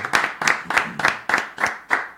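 Steady, evenly spaced hand claps, about eight sharp smacks in a row at a brisk, regular rhythm, fairly loud and with no voices over them.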